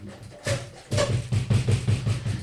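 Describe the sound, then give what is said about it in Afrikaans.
A door handle is held and yanked from the inside in quick repeated jerks, a series of knocking clatters with dull thumps, speeding into a steady rhythm, with no talking. “vat daai deur so aan aan sy handvatsel”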